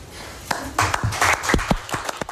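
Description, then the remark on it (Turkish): Scattered applause from a small group, a loose patter of sharp hand claps with a few louder strikes standing out, lasting a couple of seconds with no voices. “Benden bir alkış bekliyor musunuz?”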